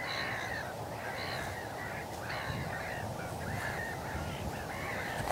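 A large flock of black-headed gulls coming in calls continuously, harsh overlapping squawks forming a steady chorus with no pauses, under constant background noise.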